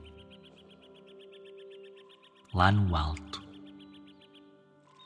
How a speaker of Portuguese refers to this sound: O Hugo só ouvia passarinhos, baixinho muito baixinho.